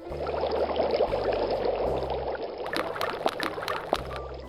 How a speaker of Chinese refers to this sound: 乌拉拉在哗啦啦的水流下冲洗鲜脆生菜和红彤彤番茄，冲完切成一片片。